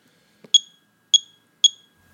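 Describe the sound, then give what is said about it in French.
A radiation detector measuring a uranium ore sample gives three short, high-pitched electronic chirps at slightly uneven intervals, each sharp and fairly loud with a quick decay, preceded by a faint low thump. No one speaks. “commence à crépiter un peu.”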